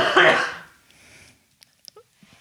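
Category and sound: human body sound, coughing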